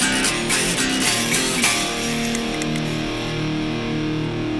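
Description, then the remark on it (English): A distortion effect played on its own, without EQ: a heavily distorted, buzzy instrument tone with a few strummed attacks early on, then a thick, sustained fuzzy drone that stays steady and fairly loud throughout. “Just the distortion on its own.”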